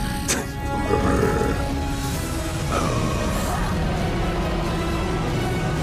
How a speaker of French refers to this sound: On va savoir si c'est lui qui grogne ou la bébête. Écoute bien. Oh, ça Qui qui grogne? C'est-tu lui ou la bébête?